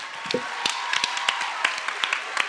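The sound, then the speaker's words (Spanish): Scattered, uneven hand claps, a dozen or so sharp slaps spread over a couple of seconds, like a small audience giving brief, half-hearted applause over a steady hiss. No one speaks. “Un aplauso para no coger.”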